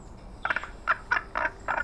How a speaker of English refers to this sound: Madame Bougette answered in, well, in, um, frogish, I guess, over the faunus speech converter.